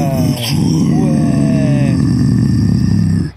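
A loud, dense post-punk track plays, with a thick, heavy low end, gritty growling tones and steady high sustained notes, holding at full volume before cutting off abruptly.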